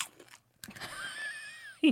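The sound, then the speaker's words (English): A sharp, crunchy bite into a snack right into the microphone, followed by a second of crackly chewing under a thin, high whining hum, then a brief loud thump at the end. No speech. “she nailed the crunch in the mic.”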